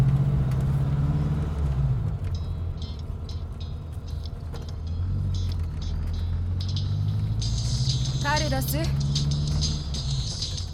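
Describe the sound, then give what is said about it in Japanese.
Steady low road rumble and engine drone from inside a moving car nearing a soccer match venue for a final, continuous throughout, with voices talking over it and a brief higher whine near the end. “車でイヤホンやめてそろそろ試合会場に着くわよあんた決勝戦なんてすごいじゃない”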